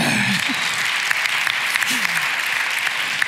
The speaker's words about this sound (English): Give it up for our middle school guys. Thank you.